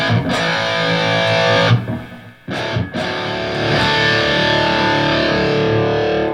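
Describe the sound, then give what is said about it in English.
Loud, heavily distorted electric guitar plays sustained notes using blind bending, improvising and then bending wherever the hand lands going down the neck, cutting off briefly near the middle before ringing out again with thick, buzzing overtones. No one speaks. “What I call blind bending is like, uh, it's basically you just play something, you know, you're improvising, you're playing, and all of a sudden you, you go down the neck and you bend anywhere you land.”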